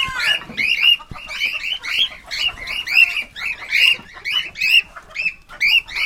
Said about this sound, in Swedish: Men nu kommer de ut. Nu är det morgonsläpp här med parakiterna.